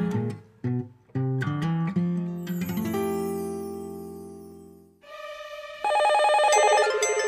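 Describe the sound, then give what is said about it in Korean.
A short musical jingle with punchy stabs and a sustained chord gives way to bright, electronic telephone ringing tones that repeat loudly and steadily through the final seconds, opening the listener phone quiz segment of the radio programme Singlebungle Show, with no voices. “청취자 전화 퀴즈.”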